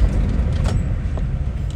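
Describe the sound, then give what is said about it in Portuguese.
A car brakes hard amid steady city traffic at six-thirty, a deep continuous road rumble with a brief sharp burst partway through, fairly loud, with no voices. “Eita, tem uma freada brusca aqui.”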